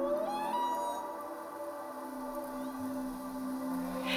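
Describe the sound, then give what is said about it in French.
A steady electronic wildlife alert alarm on a ship, signalling whales, other animals or icebergs, rings continuously for several seconds with sustained harmonic bands, fairly loud, with a brief rising sweep at the start and no voices. “Et donc cette alarme, c'était à n'importe quel moment, tu savais que tu allais voir euh, des animaux ou n'importe quoi d'autre d'extraordinaire devant toi ou un iceberg euh, bien particulier.”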